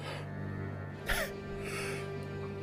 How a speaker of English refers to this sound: I'm yawning.